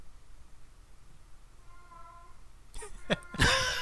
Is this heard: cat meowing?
yes